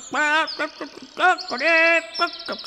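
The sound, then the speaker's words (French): A person imitates hens clucking, giving a loud run of about six squawky, bird-like syllables, some short and clipped, others drawn out and wavering in pitch. “Et Balthazar imite les poules pour tromper le loup.”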